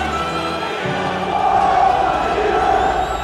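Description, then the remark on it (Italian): Tens of thousands of Milan football fans roar and cheer continuously after the final whistle of a victory, pouring out of the stadium into the streets, a dense wash of many voices shouting together, swelling slightly louder midway and holding steady to the end. “Decine di migliaia di tifosi si riversano fuori dallo stadio e nelle strade.”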